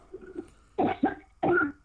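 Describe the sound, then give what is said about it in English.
A person coughs three times in quick succession into a cup, harsh, with a soft faint bit of noise before the first cough and short pauses between. “Cough them out. Cough from your stomach. Go, go. Cough in that cup.”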